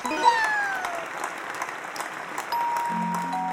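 A short burst of steady applause from a group, dense crackly clapping that holds for a few seconds, with a few faint musical tones ringing underneath.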